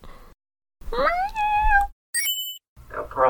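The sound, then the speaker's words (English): A single drawn-out meow from Pearl, Alberto's pet cat, rising and holding steady for about a second, followed by a brief high electronic ding and then another short muffled sound. “Listeners, Pearl is Alberto's kitty cat.”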